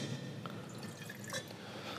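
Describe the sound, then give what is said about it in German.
A 2022 Chardonnay Kirchberg wine pours into a glass in a barrel cellar with a soft, continuous liquid trickle, broken by a few small drips and light splashes, steady and fairly quiet with no talking. “So, gebe ich dir gleich mal ein Schlückchen.”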